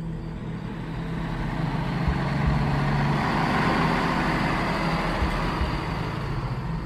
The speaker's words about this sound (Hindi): मैं भागकर गाड़ी में चढ़ा दरवाज़ा लॉक किया और एक्सीटर पर पूरा पंजा दबाया